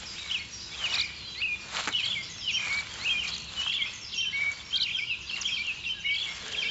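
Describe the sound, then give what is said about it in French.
A completely red songbird with black wings, a bird of deciduous forests seen in the south of the province, sings short, burry, warbling phrases again and again, fairly faint and high-pitched, over a soft rustling background with no one talking. “C'est un des plus beaux oiseaux euh, qu'on peut voir dans le sud de la province. Il est complètement rouge avec les ailes noires.”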